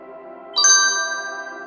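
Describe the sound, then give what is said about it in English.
A bright, playful electronic chime signaling a connection being established rings out once, a quick cluster of high tones that settles into a sustained shimmering note slowly fading over a soft background hum. “A bright, playful chime played, and the colorful, bouncing words Connection established appeared in the center of her vision.”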